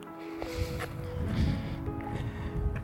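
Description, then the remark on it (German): Heavy wind buffets the microphone in loud, rumbling low gusts that fluctuate continuously, with a faint steady tone and some rustling beneath, as a person walks along an almost empty beach; no one speaks. “ja, mache jetzt, wenn man es wegen den Windgeräuschen hoffentlich äh, hört, meine allerersten Schritte.”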